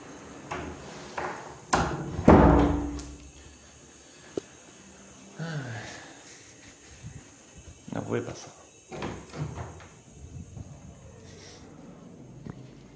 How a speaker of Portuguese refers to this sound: Calma aí, vou fechar a porta.